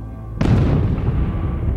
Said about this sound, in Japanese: だが軌道に乗る高度に到達する寸前ファルコン1はぐらつき始め爆発した